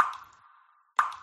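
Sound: leaking shower dripping water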